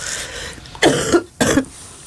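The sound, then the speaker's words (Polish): Two harsh coughs in quick succession, each a sharp burst that trails off briefly, with a short pause between them and no talking. “przepraszam Państwa, mam kaszel.”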